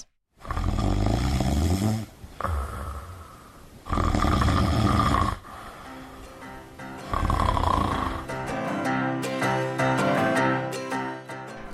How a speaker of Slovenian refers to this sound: Plapolanje mehkega neba je mogoče tudi videti skozi priprta usta smrčača, saj jih večina smrči z odprtimi usti. In preden potožite, kdo vse obvlada ta nadležen pojav, se zavedajte, da občasno in za krajši čas smrči skoraj vsak izmed nas.